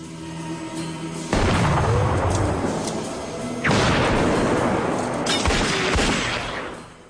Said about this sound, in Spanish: El malhechor se vuelve de pronto, toma la pistola de Andrea y dispara.